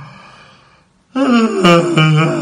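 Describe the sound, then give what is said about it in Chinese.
A voice acts out a caterpillar in a story yawning several times: a soft, drawn-out exhale first, then after a short pause a louder, longer voiced yawn with a breathy edge that wavers before trailing off. “毛毛虫先是打了几个哈欠，晃了晃身子，”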